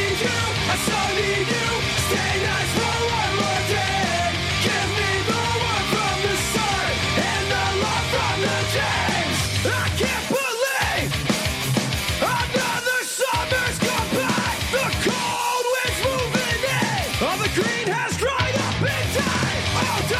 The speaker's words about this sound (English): And if you are a fan of anything in relation to hardcore, you probably will like this. Here is a song off of it.